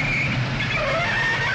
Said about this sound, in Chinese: 一列从远处开来的火车，此时呼啸着，马上就要进站了。X 神探拿起行李准备上车，突然尖利的刹车声响彻整个车站